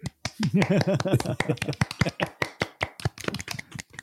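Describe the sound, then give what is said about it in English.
Scattered, irregular hand clapping from a few people, a quick run of sharp smacks lasting several seconds, with a voice calling out over the first second or so. “I'm going to start clapping my hands right now.”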